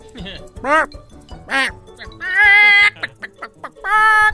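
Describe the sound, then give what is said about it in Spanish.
A person imitates a clucking hen, making a series of nasal, rising squawks and bursts of cackling, loud, with short gaps between the vocal sounds. “Como gallina.”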